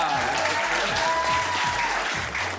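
Sustained audience applause on the French TV show La Clique, a dense wash of steady clapping at even loudness throughout, with a faint whistle-like tone and low rhythmic thumps underneath, no talking.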